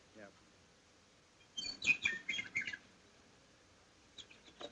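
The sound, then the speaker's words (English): On a sunny morning, a brief flurry of high, bright bird chirps and twittering rises for about a second, then fades to quiet before a few faint chirps return at the end. “The sun was shining, the birds were singing, and there seemed every indication of it being a happy and”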